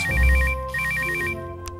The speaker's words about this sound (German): Eileens mobiler Kommunikationsapparat klingelt.